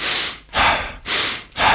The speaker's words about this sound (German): Also durch die Nase ein, durch den Mund aus. Ein gutes Tempo. Also wirklich deutlich schneller, als du sonst atmest. Und einfach dranbleiben.